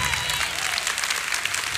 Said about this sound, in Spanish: Déjenme darle un aplauso yo solo acá.